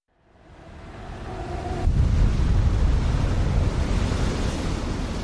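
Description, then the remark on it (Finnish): Sea waves and gusting wind at night in the dark build from near silence into a steady, loud roar of surf and rushing air, continuous and unbroken, with no voices. “Avaan silmäni ja herään ulkoa meren armoilta pimeässä.”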